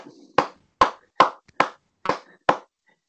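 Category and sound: human body sound, hands clapping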